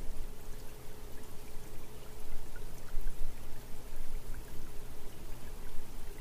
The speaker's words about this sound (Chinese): 这一波又一波松弛而规律的波浪，让你非常沉静。